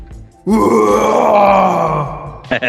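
A loud, harsh growled vocal from a heavy song roars continuously for about two seconds before cutting off, followed by a brief burst of noise.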